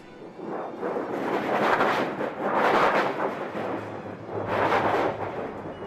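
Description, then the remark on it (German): A thunder sheet, a metal plate about 1.5 by 1.5 metres with two handles at the top, is shaken to imitate thunder, producing rolling, rumbling metallic thunder in several swelling waves with a shimmering rattle, loud, and no voices. “Das Donnerblech, was wir da gerade gehört haben, das ist eine Metallplatte.”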